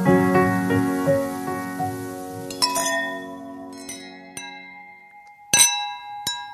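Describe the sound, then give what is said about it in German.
Glasses clink together in a toast, several bright ringing chimes with long sustained tones, a cluster early on and sharper separate clinks later, clear with no talking. “Prost, Prost. Prost, Prost, Prost. Zum Wohl, Prost.”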